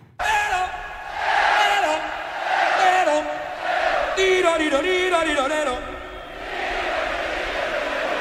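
A loud concert crowd roars and chants back in unison, answering the frontman's long, wavering vocal calls as he plays with the audience, in a continuous call-and-response that swells and dips over several seconds.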